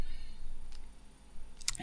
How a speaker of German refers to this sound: Moment, ich kämpfe gerade mit meinem Stift. Kennst du das? Da ist hinten nämlich der Deckel abgesprungen und jetzt.